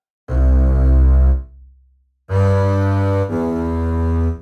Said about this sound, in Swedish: Eh, om vi börjar med kontrabasen, så den mm låter mhm. väl så här.